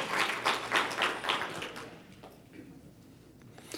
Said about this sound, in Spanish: Ya no me aplauda porque me voy a emocionar, me lo va a creer.